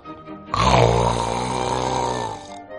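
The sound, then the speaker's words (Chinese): A single long, loud snore from a little pig with a washbasin over its head rumbles for about two seconds, deep and rattling with a harsh, buzzing roughness, rising suddenly and holding steady before cutting off. “听听，这呼噜声多大！”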